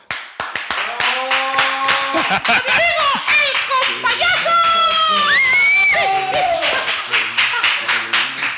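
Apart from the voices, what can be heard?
audience applause and cheering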